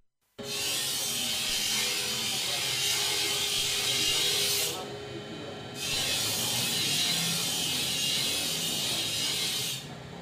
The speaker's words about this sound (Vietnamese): Nghe những âm thanh này, chắc hẳn không ai nghĩ đang đứng ở một làng quê thanh bình bên con sông Nhuệ hiền hòa. Nhưng nó lại là những thanh âm vô cùng quen thuộc của làng Đa Sĩ, ngôi làng nổi tiếng với nghề rèn truyền thống có từ rất lâu đời.